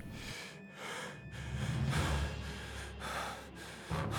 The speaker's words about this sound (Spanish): se escucha una respiración agitada. Unos metros al lado del cuerpo, a mi derecha.